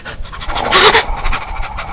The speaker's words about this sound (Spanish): Creo que es un caballo, ¿no? No, es un perro,